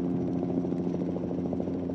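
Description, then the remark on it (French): A small helicopter carrying a harnessed package climbs after takeoff: a loud, steady engine drone with a throbbing low rumble and a faint rhythmic pulse, continuous throughout and with no voices over it. “Ça y est, on oh, s'avale L'hélicoptère prend de l'altitude.”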